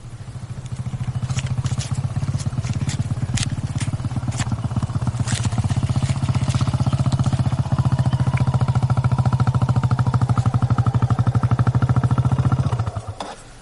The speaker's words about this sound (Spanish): Al rato, está sentado en una silla en el jardín y ve a Santi llegar en la moto.